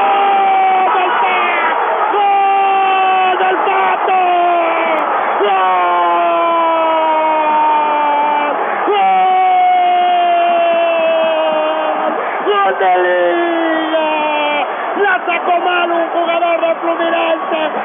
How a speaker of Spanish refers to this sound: y en el segundo palo este grito de gol de la U histórico gigante es el Pato Rusia 4 a 1 marcador de catástrofe en la final de la Libertadores